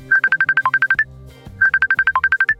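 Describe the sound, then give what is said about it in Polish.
A phone ringtone for an incoming Messenger call plays two identical bursts of rapid, evenly spaced electronic beeps with a brief pause between them, loud, with no voices. “Wystukałem krótkie siema i wysłałem – po chwili telefon zawibrował, sygnalizując przychodzące połączenie.”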